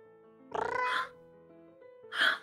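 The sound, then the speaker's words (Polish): A person imitates the cat Mruczek with two meow-like calls, a longer drawn-out one followed after a pause by a shorter one, fairly loud over a faint steady background hum. “Chwytam mruczka na ręce. Zaczynam mruczeć.”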